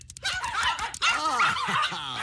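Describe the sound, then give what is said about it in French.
Several dogs bark and whine in an excited, overlapping clamor, with high yelps and whimpers running continuously for a couple of seconds. “Lâchez les chiens.”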